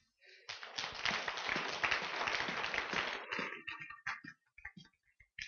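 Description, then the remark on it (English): A church audience claps their hands to affirm that God is good, a dense, steady burst of applause for about three seconds, then it thins out into a few scattered, sharp claps before fading. “If God is good, you can clap your hands.”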